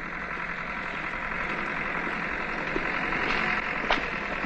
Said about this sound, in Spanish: Más tarde, un tractor avanza por el campo arando el terreno.